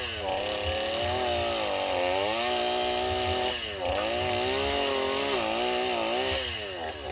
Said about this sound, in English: Oh heck yeah. Move that saw back and forth. It cuts better when you're, you know, doing the crosscut chainsaw. Oh, he's got her.